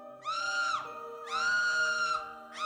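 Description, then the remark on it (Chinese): A shrill, frantic scream rises in two long, high-pitched wails, with a third cry starting at the end. The voice is loud, strained and sustained, with no talking. “我的话还没说完，就已听见了小云那刺耳的、近乎疯狂的惨叫。”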